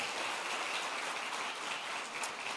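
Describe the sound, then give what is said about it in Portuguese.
Steady, dense applause from a crowd, a continuous crackling wash of many hands clapping at an even level with no voices standing out; applause given to the Lord and His word. “Dê um forte aplauso ao Senhor, à sua palavra.”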